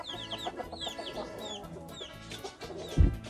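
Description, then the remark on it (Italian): A flock of Marans (Merens) hens, the breed that lays brown eggs, clucks and chatters in a coop on a farm, many overlapping soft clucks and high squawky calls running steadily throughout, with a brief dull thump near the end. “Queste sono le Merens, sarebbero le galline che fanno le uova marroni.”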